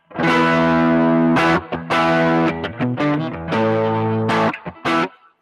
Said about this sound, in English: that is uh, the tube screamer into the Timmy with the booster and a little bit of reverb. No amp.